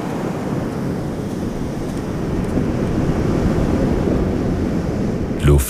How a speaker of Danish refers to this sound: Så slår de ind over strandbredden og dækker den med et blankt lag, der forsvinder ned i sandet med en syden